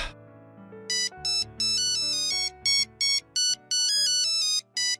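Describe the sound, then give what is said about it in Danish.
A telephone rings with a bright electronic melodic ringtone, repeating bursts of high tones over a steady lower tune, clear with no talking. “Nå, så er der nok et barn, der ringer til julemanden.”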